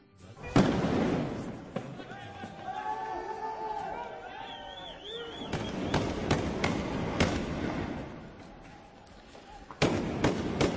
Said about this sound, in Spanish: Escuchábamos sonidos de los disturbios, choques entre jóvenes palestinos y el ejército y fuerzas de seguridad israelíes en Jerusalén Oriental.